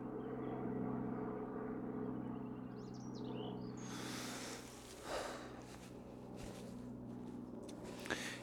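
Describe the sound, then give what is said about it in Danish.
A helicopter drones steadily, heard from inside a forest, a low continuous engine hum throughout, with a few faint bird chirps and a rush of wind or rustling partway through. “Går ind i skoven, og der er en eller anden flyvemaskine, der synes derovre. En helikopter.”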